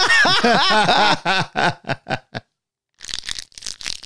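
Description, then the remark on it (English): A person laughs in quick, fading bursts, then after a short pause comes noisy crunching of someone biting and chewing a crisp Bright's Bites dog training treat. “I'm enjoying a delicious treat from Bright's Bites. The dog training treats? The same.”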